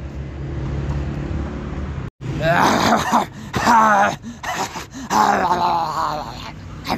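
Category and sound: vocal imitation, voice imitating a dog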